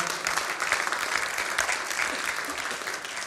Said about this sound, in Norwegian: Ja, Det kan du godt klappe for, for det syns jeg fortjener en ordentlig klapp.